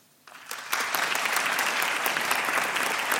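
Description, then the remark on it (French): A crowd votes by applause against a proposed app for finding out-of-stock medicines in one's area, the clapping starting quietly and swelling within a second into steady, dense clapping that holds at full strength to the end. “Par applaudissement, qui est contre”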